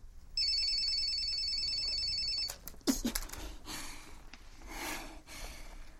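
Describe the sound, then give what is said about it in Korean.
A mobile phone ringtone sounds loud, a bright electronic ring lasting about two seconds before cutting off abruptly, an incoming call from a father ringing repeatedly, followed by a few breathy snorts and rustling. “핸드폰의 벨소리가 끊겼다 울리기를 반복했다.”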